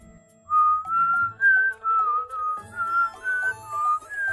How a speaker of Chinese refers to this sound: 几次过后，莲溪看大老虎够不着自己，也没有那么紧张了。他吹着口哨，逗弄起了大老虎。